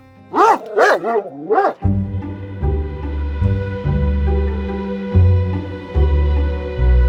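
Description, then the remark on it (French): A dog barks three times in quick succession, sharp and high. The barking gives way to a steady, low droning tone that continues to the end. “Un chien est également décédé après s'être agité dans une sorte de danse funèbre.”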